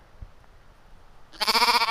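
A loud sheep bleat bursts in after a quiet stretch of low background noise, a single sustained, quavering call that fills the last half second, heard during a sheep hunt in Jomala.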